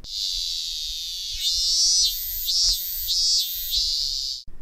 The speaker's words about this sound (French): Aimez-vous le chant des cigales